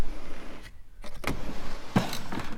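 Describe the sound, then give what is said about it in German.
A heavy drawer of a large wooden plan chest, about 1.5 to 2 metres wide and 1 metre deep with about eight large drawers holding papers, is pulled open with a rough, rumbling slide, followed by a sharp knock as it stops, then a brief rattle. No one speaks. “Mit großen Schubladen, ja. vielleicht so acht Stück, die man aufziehen kann.”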